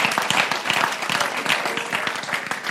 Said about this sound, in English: Listen to me, from Romania, they have sent over the last 10 years 70, 70 missionaries from Romania to the world. Yeah, I think that deserves a better round of applause than that.